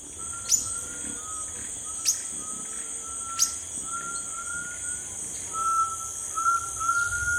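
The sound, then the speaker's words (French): Forest ambience with a steady high insect drone, three sharp bird chirps early on, and thin whistled bird calls drifting in and out, growing a little livelier toward the end. “Et donc, du coup, on est à l'écoute des sons de la forêt et à la recherche de cet être euh, mystérieux.”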